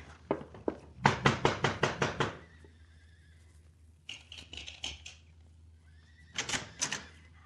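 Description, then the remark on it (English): A big Palomino horse, saddled at a corral behind a house, whinnies loudly in a long, shuddering burst, then gives a second shorter whinny a few seconds later, with a few sharp knocks and softer snorting sounds in between. “go to the corral behind the house and saddle the big Palomino horse for the senorita.”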